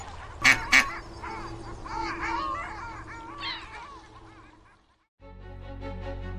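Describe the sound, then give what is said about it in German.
Ducks being fed bread quack in a busy, overlapping flurry of nasal calls after two sharp bursts, the chatter fading out before a short silence and a steady tonal hum takes over. “Noch ein Stück Brot für die Enten sehr gerne.”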